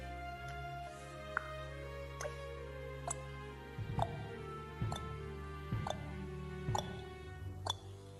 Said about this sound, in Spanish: Y escuchas por primera vez eco de algo unos pasos.